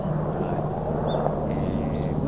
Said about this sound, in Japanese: あの厚木飛行場も近いんでね、はい、今ヘリが飛んできましたね